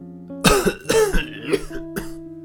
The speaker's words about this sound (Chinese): 大师傅咳嗽了几声